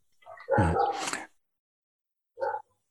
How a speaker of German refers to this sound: Das ist dein Hund. Das ist mein Ding, ja, genau. Liebe meine, das, das, ist dein Hund im Hintergrund. Ah, mein Hund im Hintergrund. Nee, das ist draußen.